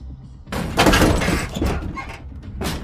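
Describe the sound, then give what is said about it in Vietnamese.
A door is violently smashed open: a loud crash bursts in after a quiet moment, followed by clattering, splintering debris and a final knock as it settles. “Cánh cửa đột nhiên bị đập bung ra Từ bên ngoài một đám người mặc đồ đen che kín khuôn mặt Chỉ hở duy nhất một đôi mắt lao thẳng vào bên trong”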